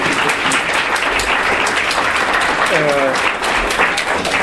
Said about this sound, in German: also ich hoffe, dass das Klatschen sich in Spenden umsetzt.